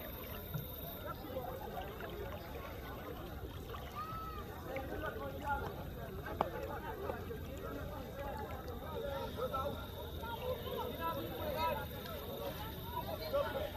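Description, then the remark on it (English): Steady churning and sloshing of water as someone wades chest-deep across the flowing Rio Grande between Mexico and Del Rio, Texas, with a constant rushing wash and indistinct voices mixed faintly beneath. “how dangerous are the conditions as you're walking across the Rio Grande?”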